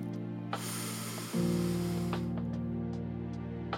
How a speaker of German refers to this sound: Zeit für eine Pause. Atmen Sie tief ein